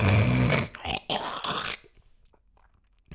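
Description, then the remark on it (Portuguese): A loud throat clearing in an exaggerated, old-person style, done by a speaker before talking: a few harsh, gravelly rasps over about a second and a half, then near silence. “Eu come, quando eu começo a falar, começo com uma cena aqui na, na garganta, que eu não sei o que é que é, mas depois não quero fazer aquele, aquele barulho da avô, sabem?”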